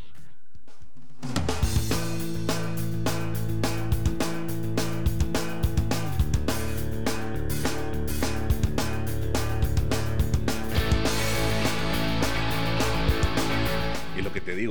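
A pop punk song kicks in after a second of near-silence, with steady pounding drums, thick sustained guitars and bass filling the mix loudly and continuously to the end.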